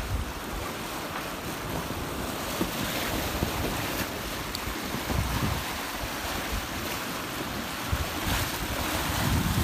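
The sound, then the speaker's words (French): Steady wind rushes over the microphone aboard a sailing boat on its fourth day at sea, on a dark blue sea, while waves wash against the hull, a continuous roar with no voices. “Quatrième jour en mer. La mer est bleue.”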